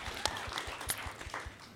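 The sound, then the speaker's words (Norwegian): A short burst of audience applause, soft and steady, with many hands clapping in a dense patter and a few sharper claps standing out, lasting under two seconds. “Det kan vi klappe for, syns jeg.”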